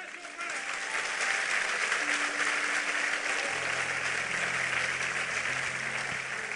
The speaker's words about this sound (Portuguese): Então glorifica a Deus pelos seus amigos, aplauda o Senhor por eles.